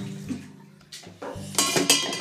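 Running water gushes after a second or so of low kitchen hum and clinking dishes, a steady, fairly loud splashing stream with no one talking.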